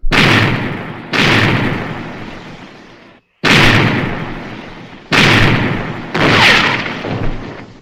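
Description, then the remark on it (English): Five loud blasts from a ship's cannons boom out in an uneven sequence, each striking with a sharp crack and then rumbling away slowly, the reverberations overlapping before the next shot lands. No voices. “Stand by as your guns bear! Take very good aim.”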